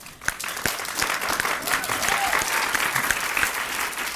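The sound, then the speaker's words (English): An audience claps steadily for the speaker's remarks about body size, a dense, sustained wash of many hands with some sharper individual claps standing out, holding fairly loud across the whole stretch. “Thank you for your claps, but I don't need them.”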